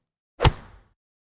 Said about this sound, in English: She punched the bag.